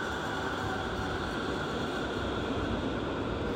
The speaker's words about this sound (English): Oh, here goes another tram or streetcar.